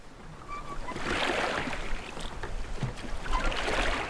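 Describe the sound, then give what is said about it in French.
Oars splash and swish through water in a slow, repeating rhythm, with broad watery surges rising and falling and no one speaking. “Alors qu'ils ne sont plus qu'à quelques coups de rame de la sphère brumeuse, le courant se fait soudain plus fort, les entraînant droit dans le néant.”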